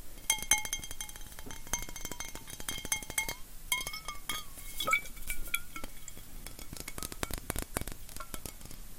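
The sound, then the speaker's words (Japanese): Repeated clinks and clacks of a large, thick-walled 700 ml glass liquor bottle knocking against hard surfaces, with bright ringing tones, irregular and busy throughout, no voices. “ごめんねちょっと強烈な音がしましたねすごいでかい瓶ですよこれはね 700ml700ml ってすっごいでもね瓶がこないだ飲んでたのサントリーの水っていうやつよりも瓶のねガラスが分厚い”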